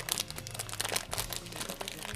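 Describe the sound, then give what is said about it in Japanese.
Continuous crinkling of the plastic package of a spicy kabukiage rice-cracker snack, printed with flames and a big chili pepper, as it is opened and pulled at by hand. The hand slips, so it does not open cleanly. Dense irregular crackles and rustles fill the whole moment, no voices. “ちょっとこの期待感高まる中このパッケージを開けていきたいと思うんですけどもね、はい、さあお願いしますねこの袋の音は聞こえますでしょうか”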